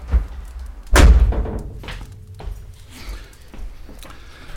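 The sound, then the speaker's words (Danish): A door is closed behind someone, swinging shut with a single solid thud about a second in, followed by a brief rattle and quiet room noise with faint shuffling. “Ja, skal jeg lukke døren efter dig?”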